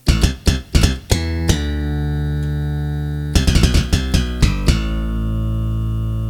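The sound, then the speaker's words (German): An older keyboard's activated funk bass voice plays a punchy funk bass line in two bursts of short, plucky notes, each phrase ending on a sustained low note that rings out, with no talking. “Also gerade diese aktivierte Funkbass, den finde ich schon”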